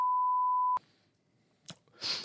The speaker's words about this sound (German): Ist das jetzt schon irgendwie ein wir, wir, piepen, wir piepen den, äh, das können, können wir vielleicht machen, wir piepen den Nachnamen aus.